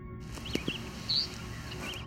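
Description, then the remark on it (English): A single short, harsh squawking call from an eastern meadowlark rises out of a quiet outdoor hiss, with a few faint, thin bird notes scattered around it. “This squawk call was hidden a bit amongst all the songs. This is one of the calls of the eastern meadowlark.”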